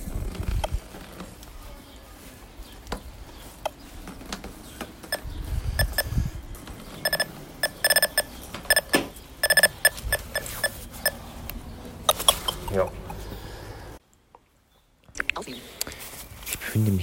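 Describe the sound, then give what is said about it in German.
An electronic obstacle-detector device, hung around the neck with its front sensors activated, beeps in a run of short, high, repeated tones as the wearer walks forward, among clicking, scraping movement noises, with a brief silence near the end. “Jetzt gehe ich mal weiter nach vorne und wir gucken mal, wann sie anfängt zu piepsen.”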